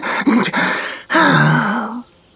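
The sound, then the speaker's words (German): A voice huffs out two long, breathy, out-of-breath exhales, the second a drawn-out groaning sigh, fairly loud, acted rather than natural panting, voicing a mole that is out of breath from digging in warm weather. “Außer Puste setzt er sich neben einen bemoosten Baumstrunk.”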